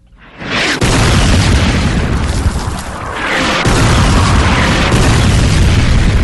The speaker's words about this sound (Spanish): Esto que suena horroroso es eh, un terrorista del Estado Islámico que destroza una estatua en el Museo de Nínive, en Irak.